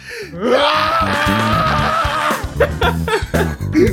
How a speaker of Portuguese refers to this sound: Então tá, vou contar até três e tem que dar aqui um gritão igual a ela, tá? Beleza. Um, dois, três e.